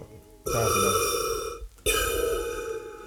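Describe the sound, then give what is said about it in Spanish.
A voice imitates the heavy, labored breathing of a coronavirus patient in hospital with a mask: two long, loud, raspy breaths, an inhale then an exhale, with a brief pause between them. “Entonces tú llegas y te internan, y estás internado con una mascarilla, y estás ahí y tú decís, puta, ya, así respirando, que sería como más o menos como así, así, espérate, calmado, espérate, lo voy a hacer.”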